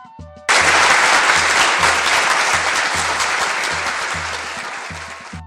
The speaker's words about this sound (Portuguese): Vamos chamar Jorge Henrique, o poeta que quando declama até os anjos param para escutar. Pode aplaudir, vamos chamar, seja muito bem-vindo, Jorge Henrique.